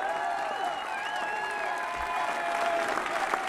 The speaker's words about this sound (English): He's actually leading the applause. Facing the crowd behind him, clapping with him.